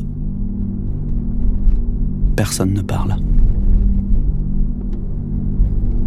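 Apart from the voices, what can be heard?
car driving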